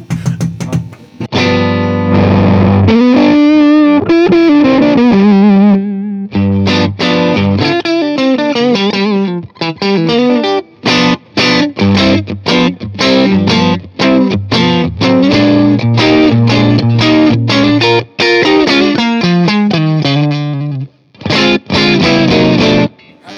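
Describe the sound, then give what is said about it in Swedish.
Electric guitar played through a silicon transistor fuzz pedal, slightly weaker than the germanium version, a thick buzzing riff of sustained notes and choppy chords, loud, with brief gaps near the end and no voices. “Eh, och här är då silikon. Lite svagare.”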